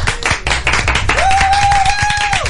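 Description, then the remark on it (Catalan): A programme's audience, filling the stand, claps at the end of the show in a dense, irregular burst of applause, and partway through a steady, high whistle-like tone rises and holds over the clapping for over a second before dropping away. “Eh, també el nostre estimat públic, que aplaudeixi el públic, que avui ha vingut públic.”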